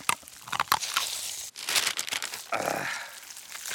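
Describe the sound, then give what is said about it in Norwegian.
Loud crinkling and tearing of paper bags, with sharp bursts of rustling and ripping that continue unevenly for several seconds, no voices present. “Det var kanskje ikke så smart å legge den i papirposer.”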